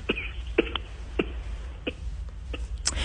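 human body sound, coughing fit

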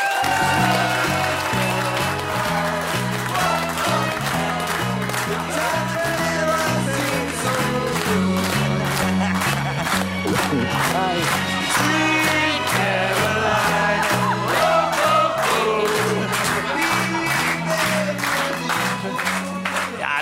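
crowd, audience applause and cheering

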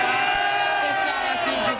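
crowd, protest crowd shouting

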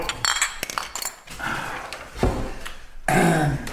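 household object, glasses clinking

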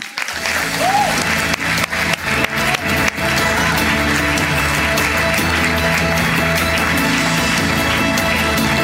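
crowd, audience applause

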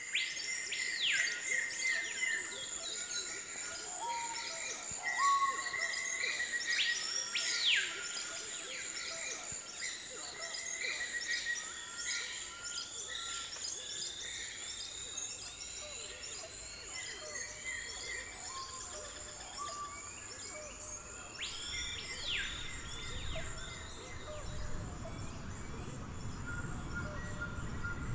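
bird, bird song

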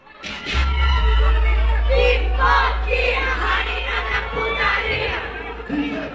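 crowd, fans cheering and shouting

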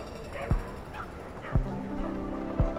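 animal, dogs barking and yipping

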